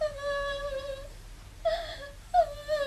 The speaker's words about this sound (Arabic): ما هذا الصوت؟ إنه بكاء حزين